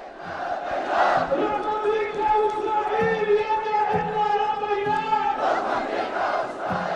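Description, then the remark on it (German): Hundreds of thousands of people gathered after Friday prayers in Sanaa, the Yemeni capital, on 12 January 2024 chant in unison, loud and sustained, with rhythmic swells of many voices shouting together and a dense roar filling the gaps between phrases. “Hunderttausende Menschen versammeln sich nach dem Freitagsgebet in der jemenitischen Hauptstadt Sanaa.”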